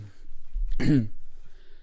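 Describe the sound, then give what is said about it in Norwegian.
A single gravelly throat clearing, a short rough burst of about a quarter second standing alone against a quiet background. “Kremter du nå?”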